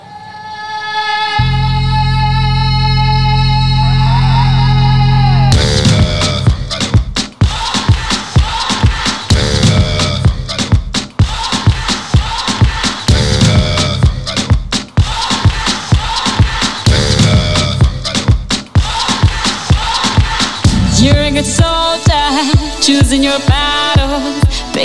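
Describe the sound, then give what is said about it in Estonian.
An upbeat 2010 football World Cup theme song plays loud, opening with sustained horn-like chords over a deep drone before a punchy, driving drum beat kicks in and carries the bright, festive tune. “selline reibas ja elujaatav, nagu see kahe tuhande kümnenda aasta jalgpalli MM-i tunnuslaul on”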